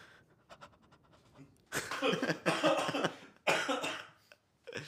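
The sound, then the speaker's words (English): A person imitates creepy, quivering breathing: a few soft, shaky puffs, then loud, trembling panting breaths in a long ragged stretch, a brief pause, and another heavy gasp. “It's like a gag app like one of them is just like breathing. Disturbing noises.”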